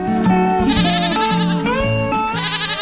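A goat bleats loudly, a few wavering, nasal cries running back to back for about three seconds with no talking.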